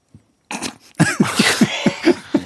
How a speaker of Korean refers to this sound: 그리고 또 뭔가 숨이 막 지금 어 윤정수 씨 지금 참고 있는데 숨을 못 쉬겠죠. 그러면은 그때 가쁜 숨을 한번팍 뱉어내는 겁니다.